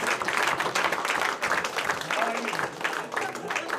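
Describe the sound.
A crowd breaks into loud, sustained applause as the winner of a contest is announced, dense clapping filling the whole stretch with whoops and cheering voices rising through it.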